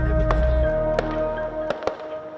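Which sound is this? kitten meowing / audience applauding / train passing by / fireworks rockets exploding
fireworks rockets exploding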